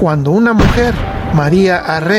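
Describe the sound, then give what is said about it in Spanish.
A brief rough burst of gunfire, like shots fired in quick succession, rings out partway through while a narrator keeps talking over it; a person fires a gun into the air beside the church of Santiago Apóstol in Saguayo. “Ese fue el sonido de una arma que presagiaba tragedias al pueblo católico de Saguayo”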